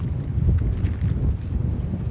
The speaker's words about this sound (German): Doch der Wind nimmt zu, als wir aus dem Wald herausgleiten ins flache Sumpfgebiet.